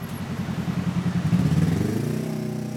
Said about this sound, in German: Kleiner Spaziergang vom Westbahnhof zur linken Wienzeile, direkt an der Hauptverkehrsstraße am endlosen Strom der Autos